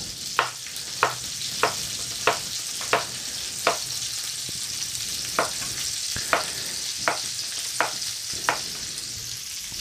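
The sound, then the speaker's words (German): Food sizzles steadily in a frying pan, a constant bright crackling hiss, while sharp taps repeat about every half second over it. No one speaks. “Jetzt habe ich schon welche in die Pfanne geschmissen.”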